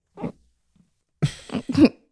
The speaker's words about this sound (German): Das war ein Schluck auf, ein einzelner.